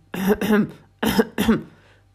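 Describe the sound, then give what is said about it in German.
A big polar bear clears his throat awkwardly in four short, voiced rasps grouped in two quick pairs, fairly loud with brief pauses between, sounding halting and uneasy. No talking accompanies it. “Er räusperte sich unbeholfen,”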